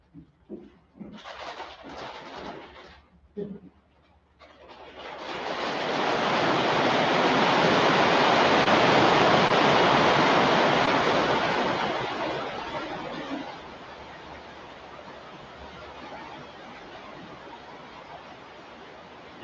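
Hail begins with a few scattered bursts, then swells into a dense, hissing roar of countless impacts that holds steady before easing to a softer, continuous patter. No one speaks.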